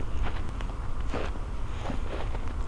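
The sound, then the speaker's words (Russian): Footsteps crunch over snow in a steady walking rhythm as a person walks a trodden path on the ice of a frozen river in bright sunshine, each step giving a gritty, crackling crush against a constant low rumble of wind or handling noise. “Под ногами у меня хрустит снег.”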